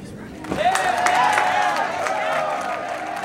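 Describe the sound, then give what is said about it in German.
Office staff break into loud cheering and clapping as Bitcoin passes the 10,000 dollar mark, with whoops and shouting voices over a steady wash of applause that swells in and holds for a few seconds. “Der Bitcoin überwindet die 10.000 Dollar Hürde und im Büro bricht Jubel aus. Die Mitarbeiter klatschen und feiern.”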